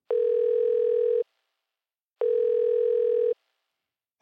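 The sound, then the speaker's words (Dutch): A telephone dial tone sounds in long, steady, mid-pitched beeps, each lasting about a second, separated by a second of silence, with a third beginning just as it ends. No one speaks. “Vandaag bel ik met Werner de Gier.”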